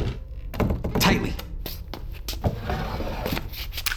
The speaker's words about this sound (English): Here, get this desk chair under the doorknob. Yeah, like that.